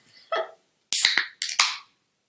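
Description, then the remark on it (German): A can of apple cider is cracked open: a sharp pop of the tab followed by bursts of fizzing hiss. A brief murmur is heard just before. “oder Apple Cider aus der Dose Podcast”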